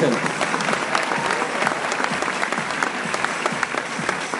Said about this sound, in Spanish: Si quieres crear libertad financiera, hoy en día, un aplauso para Daniel.